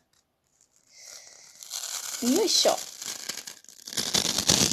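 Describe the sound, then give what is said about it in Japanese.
Dry, papery tearing and crinkling as the fine outer floss (keba) stuck to a silkworm cocoon frame (mabushi) is peeled away after the cocoons are taken out, a steady rustling scratch that swells louder toward the end, with a brief spoken grunt partway through. “この、えー、っと、ケバがまぶしについている音です。これを剥がしていきます。”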